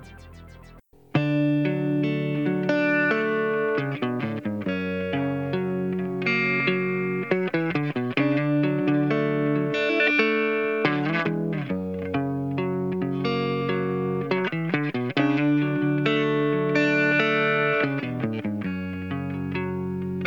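A rock song opens with a clean electric guitar playing rippling, chiming chords and single notes through a chorus effect, steady and fairly loud, with no voices.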